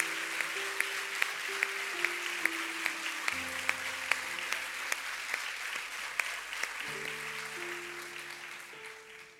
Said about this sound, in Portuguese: Mas hoje nós podemos aplaudir o Senhor pela vida de Lia. Podemos aplaudir o Senhor pela vida dela.